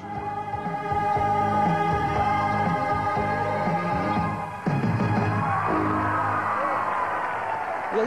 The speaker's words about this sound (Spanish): dan otra vez los aplausos.